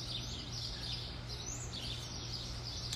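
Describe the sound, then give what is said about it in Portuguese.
Many birds chirp and twitter continuously in a dense, high-pitched chorus over a steady low hum, with no one speaking, at 6 a.m. in the town of Bonito in the interior of Mato Grosso do Sul, a place full of birds and wildlife. “E aqui é cheio de pássaro, cheio de Aqui é tipo meio vida silvestre, tá?”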